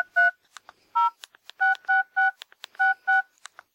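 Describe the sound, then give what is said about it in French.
A series of short electronic phone keypad beeps as a text message is typed, each a steady two-tone chirp, pressed in a quick irregular rhythm, with small clicks between them and no voices. “Il envoie illico un texto à son réseau.”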